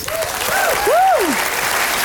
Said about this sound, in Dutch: En ook een ontzettend groot applaus voor al onze gasten vanavond.